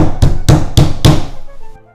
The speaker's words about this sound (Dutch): Op een avond heel laat, de prins was al lang naar bed, werd er op de paleisdeur gebonst.